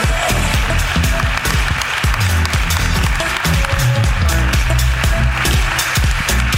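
A crowd claps steadily for several seconds, a dense, loud patter of many hands with no break, with a faint low murmur of voices underneath.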